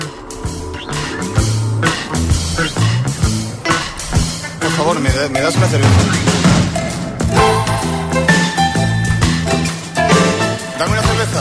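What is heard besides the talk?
pop rock song played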